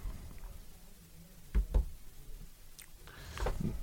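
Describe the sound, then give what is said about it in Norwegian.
One of a pair of double studio doors is pushed shut with two quick, dull thuds close together, followed by soft shuffling and faint rustling, with no talking. “Den ene er ikke lukket, så da hører man folk i gangen.”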